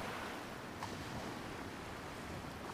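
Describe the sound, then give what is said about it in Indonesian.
Steady roar of ocean surf breaking and washing over rocks below a cliff in a fairly strong wind, a dense continuous wash of water noise with a gusty wind edge, heard alone with no voices. “Dari bawah tebing, terdengar suara ombak pecah dan berdebur di permukaan batu.”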